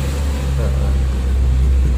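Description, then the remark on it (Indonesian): A car engine hums steadily with a low, sustained rumble that swells slightly toward the end, as a car passes on the roadside. “aja, biar denger aja kalau kita di pinggir oh, jalan. Oh, mobil mobilnya sampai ada juga.”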